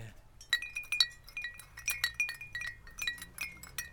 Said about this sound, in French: Et là je vois un certain nombre de, d'œuvres que vous avez suspendues à des arbres. C'est la même chose, je me suis amusée, ce sont des petites cloches.